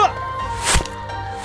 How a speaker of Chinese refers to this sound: 哼，看我这神射手的弓箭！